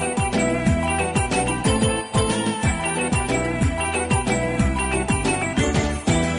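An upbeat instrumental song intro plays loud and close, with a steady bouncing bass rhythm and bright layered melody. No voices are heard.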